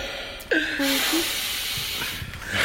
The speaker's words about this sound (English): Yeah, I mean, it is hard to talk with a chin strap on and breathe through your nose with that thing on, as that was demonstrated.